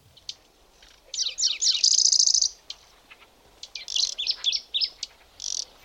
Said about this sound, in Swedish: både starrsångare och brunsångare hör ni där i bakgrunden. och sjunger. Mm. Det var... Jag tror att det är någon slags subsång, men det var ganska... Det var rätt intensiv sång tidvis ifrån... Ja, från både starrsångare och brunsångare.